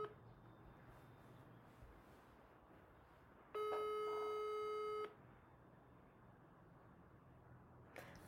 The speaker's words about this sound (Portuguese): Desejem-me sorte. Está a chamar.